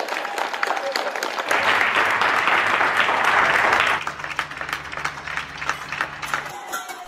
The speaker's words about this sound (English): supporting the nurses, the doctors, the carers, everyone, sending our love and support to them through the claps. And literally, when you open the doors all up and down the country, it's like just roars of claps.